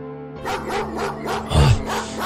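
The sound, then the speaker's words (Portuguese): Dogs bark over and over in a quick, steady series of sharp, loud yaps, with a low continuous hum underneath and no talking. “Ela disse enquanto os cachorros continuavam latindo.”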